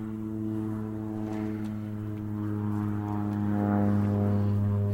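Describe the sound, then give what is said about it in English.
A propeller airplane drones overhead, its steady low engine hum and buzzing harmonics growing slightly louder as it approaches; no one speaks. “Hello, Mr. Airplane.”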